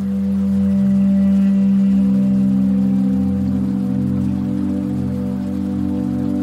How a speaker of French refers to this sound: On a l'impression d'entendre une banale musique relaxante. En fait, chaque son correspond à un appareil et tous se mélangent pour composer une musique plus harmonieuse. Le rythme cardiaque, la saturation d'oxygène deviennent une mélodie.